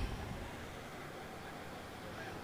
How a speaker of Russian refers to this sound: А вот эти все шумы, которые вы слышите там на фоне, это вот эта же улица самая, по которой я шел. Марка Израиль, если я не ошибаюсь, она называется «Царей Израиля».